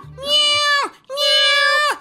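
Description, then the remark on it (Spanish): A person imitates a cat with two loud, drawn-out meows in quick succession, each a steady nasal wail that dips in pitch at the end. “¡Miau! ¡Miau! ¡Miau! ¡Miau! ¡Miau!”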